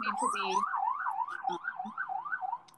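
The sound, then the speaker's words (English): An emergency vehicle siren passing outside in New York City wails in a rapid, steady up-and-down pattern, fairly loud and continuous, with a person's voice briefly heard underneath at the start. “Um, edit this siren out.”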